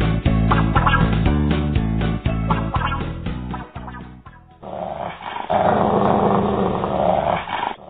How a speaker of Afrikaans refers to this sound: Dis die kwaai hond wat Denneboom vir sy baas uitsniffel sodat hulle kan afkap